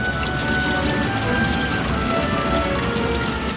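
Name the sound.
heavy rain shower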